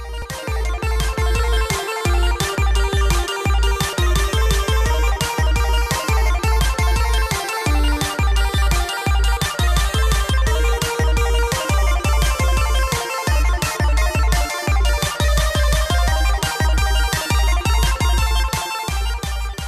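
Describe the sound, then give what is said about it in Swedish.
A bright, upbeat electronic jingle plays alone, with a steady driving beat and chiming, ringtone-like melodic tones repeating over a loud, continuous backing for about twenty seconds. “Men vad tycker du om att vi tutar igång jinglet? Vi kör jingletet.”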